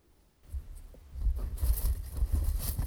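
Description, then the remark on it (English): Paper strips bearing entrants' names and contact information rustle and crinkle inside a hat before a sweepstakes winner is drawn, a steady scratchy shuffling that starts softly and grows fuller and busier over a few seconds, with no voices. “That's the sound of the paper.”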